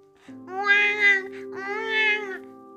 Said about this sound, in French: Ce sont des cris de bébé. Kiki court vers la chambre de ses parents et trouve un petit bout de chou dans les bras de maman.